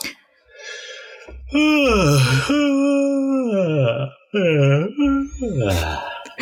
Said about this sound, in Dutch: Toch is echt gapen.